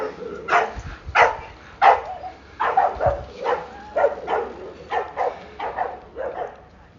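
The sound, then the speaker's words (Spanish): Dogs bark repeatedly on the street as bicycles pass, about a dozen sharp barks in a steady, fairly quick rhythm, set against a low outdoor street rumble. “eh, a ver, están pasando ahora unas bicicletas y unos perros.”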